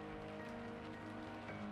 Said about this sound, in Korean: 늘 걷던 거리였지만 비가 와서인지 그날따라 살짝 무서운 기분이 들었다.